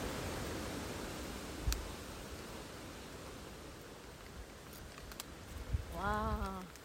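Steady, loud wind roars without a break, a broad hissing rush with a few soft thumps. Near the end a brief wavering voice-like tone rises over it.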